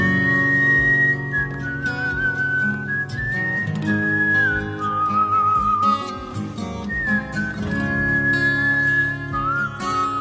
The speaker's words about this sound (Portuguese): Vamos de assobio então, vai, boa.